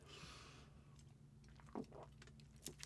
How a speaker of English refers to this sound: I'm gonna take a sip of this Gatorade, tell you my last story, and then I'm gonna get the heaven out of here for the day.